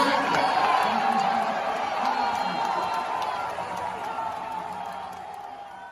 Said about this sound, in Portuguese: Como vocês puderam ouvir aí, essa foi a reação da torcida do Orlando Magic quando Adam Silver anunciou Jalen Suggs como a quinta escolha do draft, o novo reforço do Orlando Magic.